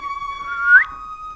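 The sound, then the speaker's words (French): A person whistles a single sustained note in imitation of a bird, with a brief upward chirping slide near the end, fairly clear with no talking. “Parce que le, loup fait ouh et l'oiseau fait.”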